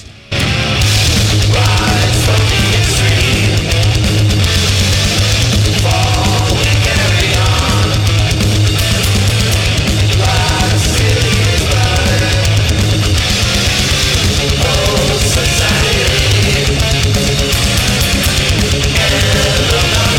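A death metal track plays loud and dense throughout, with heavily distorted guitars, a pounding low end and relentless drumming at a steady, unbroken intensity, no talking over it.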